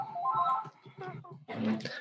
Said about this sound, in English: You have a ringing phone. yeah, um, it, it never rings. That our landline, our landline only at times like this.